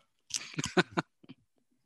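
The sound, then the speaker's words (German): Loud crunching as a dried large-scale lizardfish is bitten with the back molars and chewed: a cluster of four or five rapid crunches, then a couple of softer chews before it goes quiet. “ich muss mit den Backenzähnen abbeißen.”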